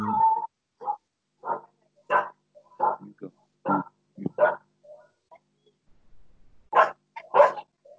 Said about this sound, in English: Uh, basically, the the situation is, that the neighbors who had a dog that they lost two, th- three or four years ago, they now have a new puppy